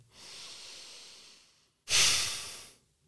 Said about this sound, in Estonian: ehk siis, et äh, me oleme harjunud hingamisse muslitena siis äh, ise reguleerima oma nagu väljahingamist, hingame sisse,